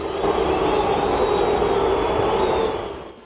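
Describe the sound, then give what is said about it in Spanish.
A large stadium crowd in Guadalajara boos in a loud, sustained roar, with scattered applause mixed in, as Mexico forward José Juan Macías is substituted off in a match against the United States, before the noise fades away near the end. “Sí, bueno, ahí entre abucheos y, y, algunos aplausos se fue José Juan Macías, ingresa el Canelo.”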